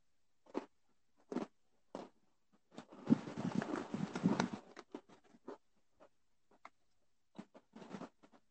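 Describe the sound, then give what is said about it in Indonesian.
Crisp crunching of someone chewing a Lotus biscuit: irregular bites and munches, with a denser stretch of grinding crunches in the middle, then scattered softer chews, and no talking. “Ntar gue sambil gue gue ngunyah dulu”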